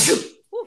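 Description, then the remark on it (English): A single loud sneeze bursts out with a sharp, breathy blast that fades quickly, followed after a short pause by a brief voiced sound. “sorry. Bless you.”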